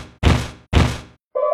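In a Mario video game, the hat Cappy smashes open a wooden crate blocking a mountain path, with two heavy, crunching breaks in quick succession, each fading out, followed by a short bright tonal chime. No one speaks.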